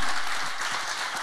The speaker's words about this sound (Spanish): Y si tú lo crees, dale un aplauso fuerte al Señor en esta hora.